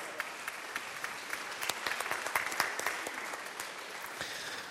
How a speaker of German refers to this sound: warmen Applaus für die beiden Herren.